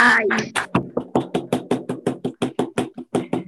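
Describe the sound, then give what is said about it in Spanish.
Applause as a steady, rhythmic clapping, about sixteen sharp, evenly spaced claps at a brisk pace, with a brief voice at the start before the clapping carries on alone. “No, hay un aplauso para ustedes también.”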